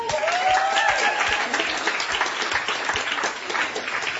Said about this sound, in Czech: Můžeme jim ještě jednou zatleskat.